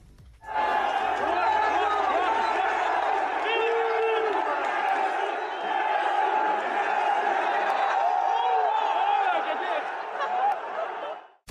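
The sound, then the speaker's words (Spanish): A huge stadium crowd in Saudi Arabia, at a Saudi League match against Al-Shabaab, roars the chant "Messi, Messi, Messi" in unison at Cristiano after he scores a goal, many voices blending into a loud, steady wall of sound that carries on for about ten seconds before cutting off. “en el triunfo de 3-2 en la Liga Saudí frente al Al-Shabaab, cuando él mete el gol, le empiezan a vitorear en la tribuna Messi, Messi, Messi, y él hace un gesto Vamos a escuchar, estos son los gritos en Arabia contra Cristiano cuando metió el gol.”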